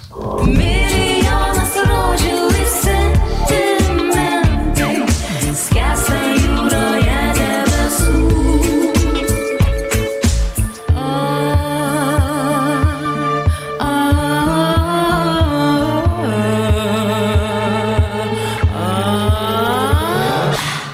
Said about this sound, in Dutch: dat was eh, de inzending van Litouwen.